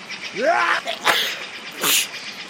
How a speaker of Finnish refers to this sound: Älä vaan aivasta, se haistelee kielellä. En pysty pidättelemään aivastusta enää kauan.